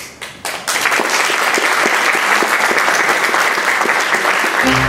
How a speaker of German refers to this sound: Applaus